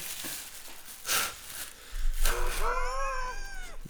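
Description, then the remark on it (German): Someone blows through two unused dog-waste bags fresh from a dispenser: a couple of breathy puffs, then a wavering, nasal, bleat-like tone that rises and falls over a low rustling rumble before fading out. “er hat gerade zwei Tüten, äh, wo er gerade damit durchbläst, durch zwei Tüten.”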